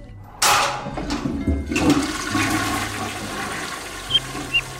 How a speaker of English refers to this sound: The sound of the flush unleashed a torrent of screams from the woman in the room as the water was sucked down the drain.